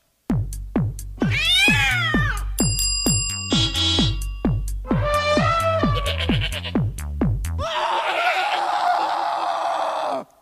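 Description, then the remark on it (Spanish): Cat meow sound effects, high and sliding, repeat over a steady thumping beat, joined by ringing bell-like tones and ending in a long harsh, noisy screech. “Entonces, ahora es gata, ¿verdad?”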